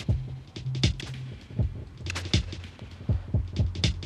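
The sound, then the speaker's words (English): A pulsing electronic synth tone from a Tip Top module, its pitch wobbled by a fast LFO and run into Disting reverb with the wet/dry mix modulated by the same LFO, over a steady rhythm of deep thumping pulses and brief bright bursts, with no voices. “Uh, it's very simple, but I'm controlling the pitch with an, a really fast LFO, and then I'm running that out into the uh, the reverb from disting and controlling the wet dry with that same LFO”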